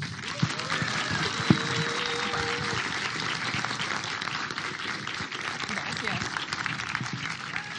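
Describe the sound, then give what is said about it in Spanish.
An audience applauds a freediver who holds three world records, steadily for several seconds, a dense wash of many hands clapping with a few sharper claps standing out, holding an even loudness throughout. “Un aplauso para Sofi.”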